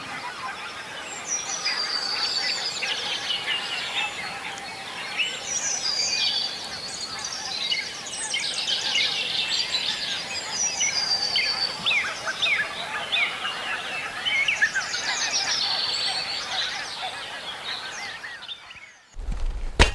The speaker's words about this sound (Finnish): Et peruskonsertti toistuu samana, laulaja, linnut alkaa laulaa aikaisimmat jo ennen kuin aurinko nousee ja sitten tähän auringon nousun aikaan peruskuvio on sama, mutta sitten joka vuosi on aivan erilaista. Kuunnellaan taas näitä lintuja.